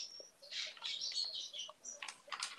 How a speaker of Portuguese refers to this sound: Tá ouvindo barulho de passarinho, onde que é? É, não é aqui. É aqui. é aqui. Estou ouvindo os can o canto dos pássaros aí. É o fundo sonoro nosso.